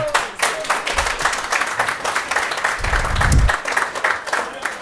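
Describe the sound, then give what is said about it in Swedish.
Audience applause at Carricks Corner welcoming footballer Fitim Kastrati as the first interview guest. It fills the whole stretch, a dense, steady patter of many hands clapping at an even loudness, with a brief low thump midway through. “En applåd!”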